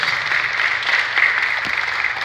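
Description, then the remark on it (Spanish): Steady applause from a church audience applauding God, a dense continuous patter of many hands clapping at an even loudness throughout, with no voices over it. “Dale un aplauso al Señor, hermano, porque lo merece.”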